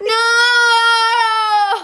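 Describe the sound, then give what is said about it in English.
A person lets out one long, loud, high-pitched scream, held at a steady pitch for nearly two seconds before breaking off abruptly. No other voices or sounds accompany it. “Sorry, I screamed.”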